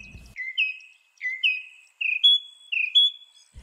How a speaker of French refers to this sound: Selon un article récent publié dans la revue Frontiers in Psychology, l'oiseau moqueur suit en effet des règles musicales similaires à celles que respectent les grands artistes de la chanson.